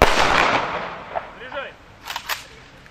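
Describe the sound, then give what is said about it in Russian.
A loud rifle salute volley cracks out at once at the start and rings away over a second, followed by a few faint clicks and rustling sounds. It is a three-round gun salute at a memorial to those killed in the Great Patriotic War, following a minute of silence. “Память тех, кто защищен защищал родину и не вернулся с поля боя, почтили минуты молчания, вслед за которой последовал трехкратный оружейный залп.”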